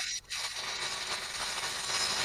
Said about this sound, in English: Oh. Oh, there's drills, yeah.